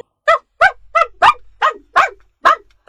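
A country dog named Roof (罗福) barks insistently, about eight loud, sharp, mid-pitched barks fired off in a quick, fairly steady rhythm with brief silences between them and no talking.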